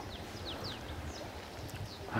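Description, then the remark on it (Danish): A horse gives a single short, harsh cough near the end, rising above a steady outdoor hiss while small birds chirp faintly. “Og så er der, der er en hest, der hoster, øh, eller i hvert fald gerne lige Der er en, en lille hest, med stor selvtillid og en stor hest.”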